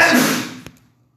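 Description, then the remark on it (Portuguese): A single forceful sneeze bursts out loudly with a breathy, noisy rush that fades over about half a second, followed by a faint click and then quiet. “O meu primo espirro”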